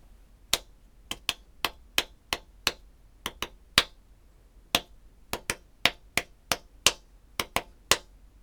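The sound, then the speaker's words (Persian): A rhythmic pattern of sharp percussive hits, like snaps or claps, played by hand alone with no melody as the rhythm of a well-known song, with some beats louder and the gaps between them varying. “میبینید یک سری ضربات منظمه که شدت اونها تغییر میکنه کشش اونها هم تغییر میکنه یک بار دیگه گوش کنید این ریتم یه آهنگ معروفه ولی شما اون آهنگ به ذهنتون نمیاد چرا چون ملودی اون آهنگ در حال حاضر نیست”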